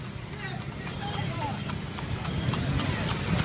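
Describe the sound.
Fast, steady hoofbeats of horses galloping on pavement during an illegal street horse race in broad daylight on the ring road of Naples, a sharp rhythmic clatter cutting through a loud, continuous wash of street noise and indistinct voices.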